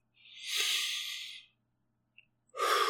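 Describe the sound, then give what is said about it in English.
Focused deep breathing in and out: one long, airy breath lasting over a second, a short pause, then the next breath beginning. No talking, just the steady hiss of air. “You know, breathing in, breathing out.”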